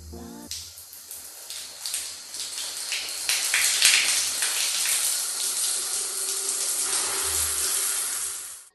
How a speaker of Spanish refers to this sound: Abrí la llave de la regadera, esperé a que el agua se calentara.